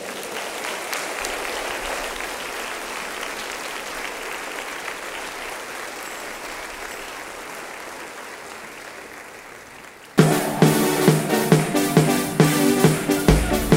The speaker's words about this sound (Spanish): Amén. Dele otro aplauso al Señor.